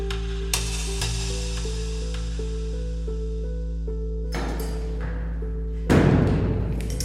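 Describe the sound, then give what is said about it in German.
The heavy wooden door of St. Matthäi church in Leisnig, a small town halfway between Leipzig and Dresden, is opened, ending in a loud, abrupt thud with a rush of noise, after several seconds of steady low droning tones broken by a few soft knocks. “öffnet die schwere Holztür zur St. Matthäi-Kirche in Leisnig, einer Kleinstadt auf halbem Wege zwischen Leipzig und Dresden.”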